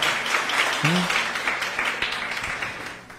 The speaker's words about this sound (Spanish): Démosle un aplauso al Señor por esa bendición que nos tiene de parada.